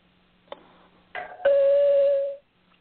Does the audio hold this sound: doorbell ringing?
yes